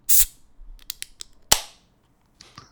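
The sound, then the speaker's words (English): A 2014 World Beer Cup champion beer from a mid-sized brewery is opened with a sharp pop and brief fizz, followed by light clicks, another crisp crack with a short hiss, then quiet handling sounds as it is poured into a beer mug. “So let's see if uh, let's see what it looks like because I brought a beer mug. So I, so I just got a proper mug. Proper mug. Let's see if I can get that that that nice sound.”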